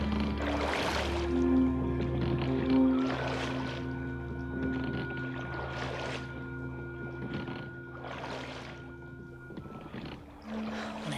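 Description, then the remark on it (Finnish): Oars dip and splash in steady strokes as rowers row a boat away from a city at night, roughly one stroke every two to three seconds, each a soft whoosh of water. A low continuous hum drones beneath; no one speaks. “Herätin soutajat ja he työnsivät aidonsa virtaa ja soutivat pois kaupungista.”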